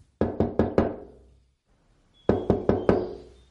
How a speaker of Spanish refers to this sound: Hewell y Kubi, el hombre de las pruebas del lavadero, llaman a la puerta. Ted abre.